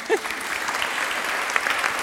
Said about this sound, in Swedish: Tack, en applåd.